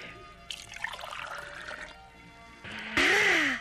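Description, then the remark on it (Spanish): Water pours steadily into a container, a bubbly splashing that shifts and rises in pitch as it fills, then swells into a louder, fuller gush near the end. “¡Oye, qué éxito de bebida! ¿Qué es? Agua.”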